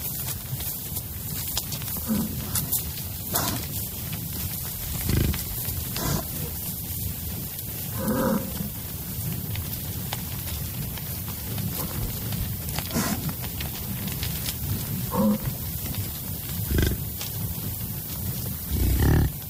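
American bison grunt and bellow in the wild at Janos, Chihuahua, low, rumbling calls repeating irregularly every few seconds over a steady background hiss, with no one speaking.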